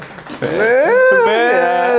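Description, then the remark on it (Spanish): A small dog named Tequila, which has climbed onto a table, whines in a long, wavering, high-pitched cry that rises and dips, fairly loud, after a brief rough, low start that could be a growl. “Ah, Tequila es el otro perrito. Se subió a la mesa y pues ahí tenemos la cámara”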